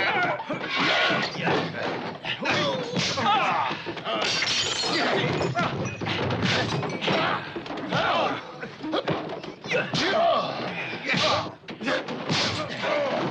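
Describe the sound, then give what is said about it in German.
A rapid, continuous barrage of exaggerated movie-style punching sound effects, the fists of Bud Spencer and Terence Hill in the film Vier Fäuste für ein Halleluja, loud, with heavy thuds and cracking smacks piling on top of each other, plus scattered shouts and grunts. “Richtig, das sind die Fäuste von Bud Spencer und Terence Hill in vier Fäuste für ein Halleluja.”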